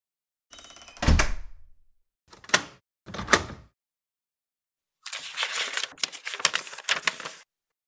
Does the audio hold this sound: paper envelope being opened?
yes